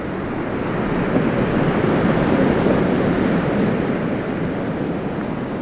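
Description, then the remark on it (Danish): Large waves roll in toward land and break just off the coast in cascades of white foam, a steady, continuous roar of surf, a broad hiss of churning water with a low rumble underneath that swells slightly and never lets up. No voices. “holder en orange gnistren fanget i sig, indtil de dogen brækker lidt ud for kysten i store kaskader af hvidt skum.”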